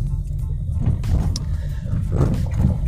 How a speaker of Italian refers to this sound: se trovate un po' di rumore è perché sto guidando, sulla mia macchina è un po' rumorosa, spero che si capisca, cerco di urlare il più possibile in modo da sovrastare il rumore della macchina.